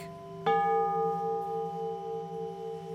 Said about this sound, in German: Die sind aber schön aufeinander abgestimmt. Die sind auch gestimmt, richtig. Und es waren Altarglocken.